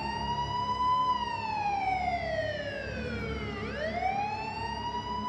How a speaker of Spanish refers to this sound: cuando están conversando, de pronto a ustedes les llama la atención el ruido muy fuerte de la sirena de los policías.